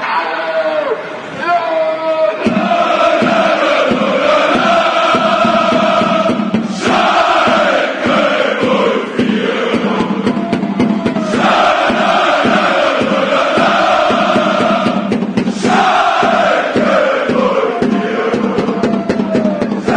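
Schalke 04 football supporters chant loudly in unison in a stadium. A huge mass of voices repeats the same sung phrase over and over in a steady cycle of a few seconds, with no pause throughout.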